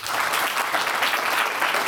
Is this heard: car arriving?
no